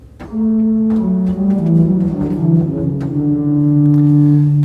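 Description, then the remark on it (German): Deep, sustained organ pedal notes played with the feet one after another, each low tone held and then sliding into the next. Loud, steady and resonant, with no voices. “Und jetzt kommen die tiefen Töne. Ich bin nochmal in der Mittellage, jetzt spiele ich mit den Füßen.”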